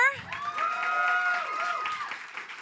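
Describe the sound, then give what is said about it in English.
An audience at a live show claps steadily throughout, a dense crackle of many hands, with a sustained voice whooping or cheering over it near the middle. “Yes, we can give it up.”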